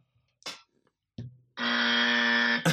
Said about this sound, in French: Déjà, on va tester vos buzzers parce que je demande d'avoir des petits buzzers.